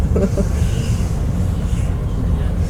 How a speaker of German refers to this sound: Auf der Linie nach Schönefeld, der Flughafenlinie. Ja. Auch ganz schöner Zug eigentlich. Ja. Ordentliche Sitze.